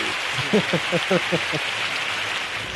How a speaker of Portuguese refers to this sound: Palmas para Vagrande Story, história, por favor. Ah, efeitos